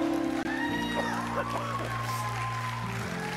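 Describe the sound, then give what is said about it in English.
An audience claps steadily in praise of God, a dense crowd of hands, with sustained organ-like chords and some voices mixed in underneath. “Somebody get up on your feet and give God a hand clap of praise.”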